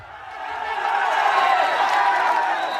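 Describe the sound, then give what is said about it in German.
A dense crowd of partying cycling fans roars and cheers continuously at the Dutch Corner (Holländer Kurve) on a mountain bend, a broad wall of many voices swelling slightly and staying loud throughout. “Das ist der Sound der Holländer Kurve.”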